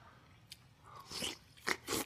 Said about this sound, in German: Wolltet ihr schon immer mal hören, wie Joko Winterscheid eine Zitrone isst?